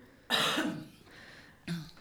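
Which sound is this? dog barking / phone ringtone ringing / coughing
coughing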